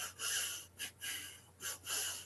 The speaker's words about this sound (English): so he'll do a lot of breathing Okay. And it's a little bit of a hyperventilation.